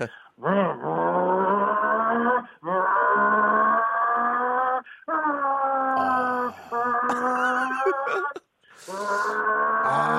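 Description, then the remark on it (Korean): Someone mimics a Formula One race car, as raced at Yeongam in South Jeolla, Korea, with their voice: a loud, buzzy engine drone that swoops up in pitch, then roars in several long sustained bursts separated by brief breaths, with hissy screeching touches near the end. “자, 경주차 소리 들어보겠습니다.”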